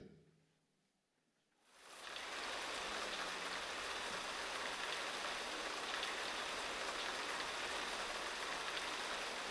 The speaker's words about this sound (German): Und dann fing es an zu regnen, zu einem wunderbaren Rhythmus, in einer Harmonie, gleichmäßig, erfrischend, freundschaftlich.